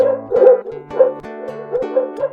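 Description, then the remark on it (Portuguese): A dog barks repeatedly outside in the late night, set off by cats, in a steady rhythm, each loud, harmonically rich woof following quickly on the last, with no one talking. “Enquanto isso, lá fora, alta madrugada, os gatos enamorados provocam latidos.”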